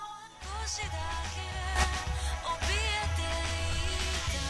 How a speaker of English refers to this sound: this is one of her songs here, "Passion," oh, which is the opening to Kingdom Hearts 2